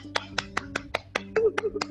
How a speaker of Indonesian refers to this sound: alhamdulillah lagi kita masih bisa ngelanjutin podcast kita ke episode yang ketiga alhamdulillah alhamdulillah tepuk tangan